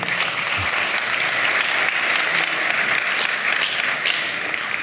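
A crowd applauds a person at the speaker's request, dense clapping filling the whole few seconds at an even, fairly loud level with no pauses or voices standing out.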